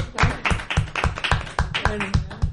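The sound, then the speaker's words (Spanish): Rhythmic hand clapping from an audience, sharp claps falling in a steady, fairly quick beat at moderate loudness, with voices faintly audible underneath. “Vamos a dar un aplauso”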